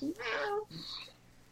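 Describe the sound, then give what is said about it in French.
A pet cat meows once, a drawn-out, fairly loud call, followed by a softer, shorter trailing sound before it fades into quiet room tone. “j'avais presque le goût de mettre mon chat comme chose importante parce que le mien dans la vie est très vocal ce matin”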